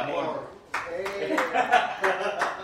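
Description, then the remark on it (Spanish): A handful of sharp, irregular handclaps from an audience applauding a soprano ring out over steady talking and laughter, loud bursts spaced unevenly across a couple of seconds, like scattered applause beginning. “Yo pido un aplauso para la”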